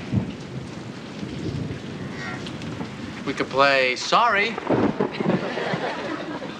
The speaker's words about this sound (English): It's raining.